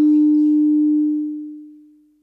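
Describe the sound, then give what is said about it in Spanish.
A steady audio feedback tone rings out alone during a Bible reading over a sound system, at a single mid-low pitch, holding loud for about a second before gradually fading away over the next second. “un acople”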